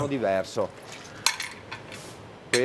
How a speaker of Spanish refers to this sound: Primero se lavan las almejas, luego se separan las que están en mal estado. El sonido cambia